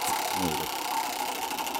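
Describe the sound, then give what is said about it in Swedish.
A prize wheel is spun again, with a rapid, steady run of mechanical clicks that holds throughout, fairly loud, with a brief voice murmuring near the start. “Oh, wow, vi snurrar igen.”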